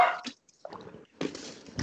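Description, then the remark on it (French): A chihuahua kept as a guard dog yaps in several sharp bursts: a couple of quick barks, a short pause, then a longer stretch of high, excited barking, with no talking. “J'ai un chien de garde. Ah ouais. Chihuahua écrit pour rien.”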